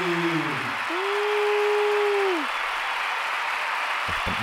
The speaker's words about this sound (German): Bitte Applaus für Erik.